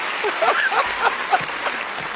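A short burst of applause for an impression of Denzel Washington in John Q: many hands clapping in a dense, steady crackle that holds at a moderate level throughout, with a few sharper claps standing out and no talking over it.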